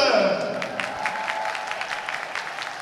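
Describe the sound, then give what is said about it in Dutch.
An audience at a live event claps steadily and enthusiastically throughout, a dense rattle of many hands, with a brief cheer or whoop rising at the very start before the applause carries on. “Eh, dit, is, dit is lekker enthousiasme.”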